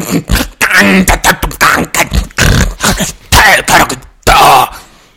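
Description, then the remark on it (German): A voice imitates harsh, guttural Klingon speech, a string of loud, choppy, throaty syllables in rapid bursts with short pauses, delivered alone without real words. “sondern die, also die die haben wahrscheinlich alle freie Nebenhöhlen, so wie die reden.”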